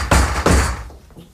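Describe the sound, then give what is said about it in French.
A door is opened, with two heavy thuds about a third of a second apart that ring out and fade. No one speaks. “Je vais voir à la porte.”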